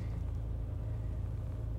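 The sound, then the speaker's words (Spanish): A steady, low engine rumble drones on without a break, like a car creeping through Madrid traffic, recorded while on the move, with no voices. “Quería probar sobre todo a ver si se podía grabar en movilidad, que ya digo es bastante complicado, y más con el tráfico de Madrid”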